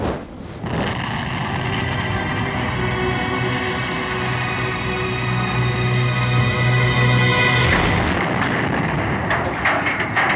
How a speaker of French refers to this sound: Les flammes se propagent rapidement, attisées par le vent et le bois sec du navire. Nous luttons désespérément pour contenir l'incendie, mais il est trop tard. À minuit, la poudrière de l'Orient explose.